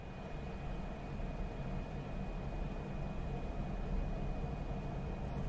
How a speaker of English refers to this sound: That is the sound of well running equipment in an industrial setting. If your equipment is going pow, bang, thump, thump, thump, you've got problems.